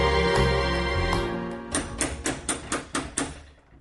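A steady series of about six sharp, fairly loud knocks on a door, evenly spaced, following a short stretch of fading music, in a Tunisian radio drama.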